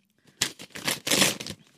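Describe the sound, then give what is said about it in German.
Gift wrapping paper being torn open in a few quick, loud ripping bursts with a crinkly, hissing texture, heard alone without talking, lasting about a second before trailing off. “Ich mache leider kaputt. Tut mir leid.”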